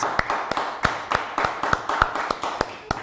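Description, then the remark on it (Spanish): An audience applauding in praise of the Eternal (God): a steady, rhythmic clap about three times a second rises above a dense, continuous wash of many hands clapping, fairly loud with no voices. “¿Por qué no le levanta un fuerte aplauso al Eterno?”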